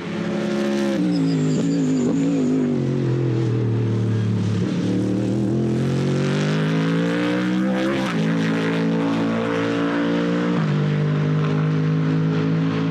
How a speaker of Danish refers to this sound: det er derimod den nye øh, Ford Mustang. Og hvis I ikke har øh, hørt, hvordan den lyder